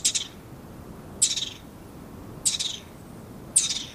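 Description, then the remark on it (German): A garden dormouse gives four shrill, raspy whistling calls at steady intervals of just over a second, each a short burst that trails off, loud against a quiet background. “Das ist aber ein Gartenschläfer.”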